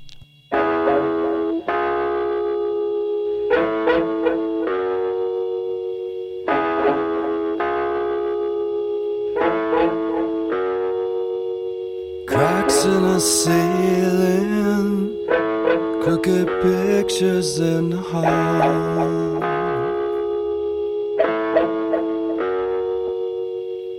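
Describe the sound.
A rock song plays loudly, with sustained distorted guitar chords changing in a steady rhythm, and a male voice singing over them as the arrangement swells midway.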